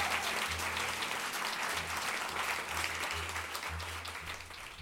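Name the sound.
audience clapping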